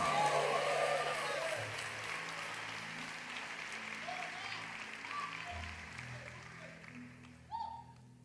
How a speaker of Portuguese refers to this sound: Dê um aplauso ao Senhor. glória a Deus e aplaude Ele aí.